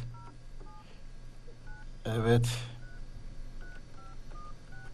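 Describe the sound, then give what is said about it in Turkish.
A phone number being dialed by a presenter at Radio Viva: a series of short, clear keypad tones at uneven intervals, with a brief spoken word in the middle and a steady low hum underneath. “Aradım arkadaşlar.”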